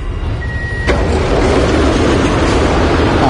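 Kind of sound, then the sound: vehicle, metro train departing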